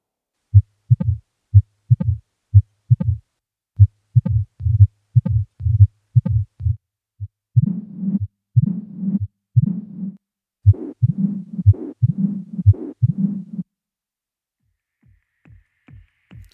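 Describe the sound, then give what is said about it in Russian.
Low, muffled heart sounds of mitral stenosis thump in a steady rhythm, with a low-frequency rumbling murmur filling the gaps between beats, heard through a stethoscope with the person examined lying on the left side, with no voices present. “Шум при метральном стенозе настолько низкочастотный, что выслушивается только стетоскопом и при положении обследуемого на левом боку.”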